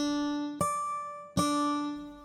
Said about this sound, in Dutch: Maar je mag een hele octaaf naar beneden gaan. Dat is op zich dezelfde toon en die klinkt zo.